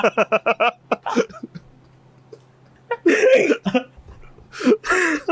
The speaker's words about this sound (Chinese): 我真的第一次在节目上遇到笑到打嗝的。